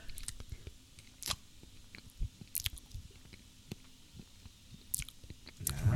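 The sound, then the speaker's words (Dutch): Wet, squishy chewing of a piece of red beet that no herring has touched, with irregular soft crunches and sharp clicks repeating over several seconds, fairly quiet with no talking. “Nee, want rode biet is gewoon echt heel lekker.”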